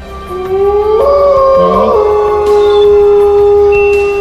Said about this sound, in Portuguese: Vocês começam a escutar o Uivo.